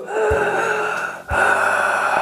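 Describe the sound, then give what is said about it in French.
A voice imitates a harsh, rasping, Darth Vader-like mechanical breath, two long noisy cycles in a row, loud with a brief break between them, demonstrating a noisy way of breathing in a singing lesson. “Est-ce que nous sommes plus proches du Darvador”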